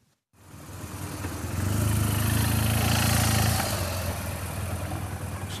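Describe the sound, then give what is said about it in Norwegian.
The engine of a new police motorcycle of the Norwegian traffic police in Rogaland, in Sandnes, rumbles steadily, its low idle swelling into a louder, harder-revving drone before settling back to a steady running hum. No voices are heard. “Utrykningspolitiet i Rogaland skal bruke en ny motorsykkel for å stanse råkjørere.”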